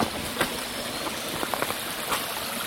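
Water trickles steadily down a slope, a soft continuous wash with a few brief splashy drips popping out here and there. No voices, just the quiet, even flow.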